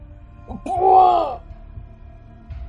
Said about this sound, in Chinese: 一声剧烈的惨叫从流浪汉嘴里发出，接着他就没有机会再发出任何声音了。只是他凄厉的惨叫没有引起任何人的注意